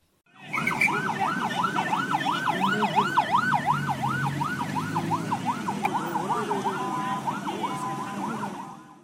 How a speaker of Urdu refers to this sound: پاکستان کے شمال مغربی شہر پشاور کی سڑکوں پر ایمبولینسوں کا شور اور رش دیکھا جا رہا ہے ایک پر ہجوم مسجد میں خود کش بم دھماکے کے بعد درجنوں زخمیوں کو ہسپتال منتقل کیا گیا ہے